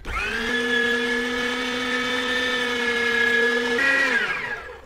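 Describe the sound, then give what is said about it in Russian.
An electric meat grinder mincing meat for spaghetti bolognese runs with a steady motor whine and harmonic hum, its pitch shifting slightly near the end as the load changes, then winding down. No one speaks. “Сейчас посмотрим, как она измельчит мясо для”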